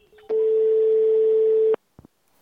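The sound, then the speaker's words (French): A telephone ringback tone as a call is placed to the Observatoire international des prisons: one loud, steady mid-pitched beep lasting about a second and a half, followed by silence and two quick clicks. “Pour en parler, on a passé un coup de téléphone à l'Observatoire international des prisons.”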